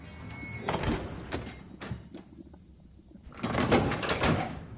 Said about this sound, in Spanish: Se lo lleva. Cierra la puerta.